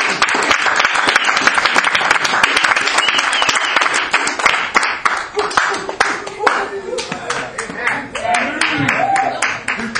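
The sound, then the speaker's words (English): An audience claps their hands in praise to God, in sustained, dense applause that is loud and steady throughout, with voices calling out and rising over the clapping toward the end. “Man, let's give God a good hand clap of praise.”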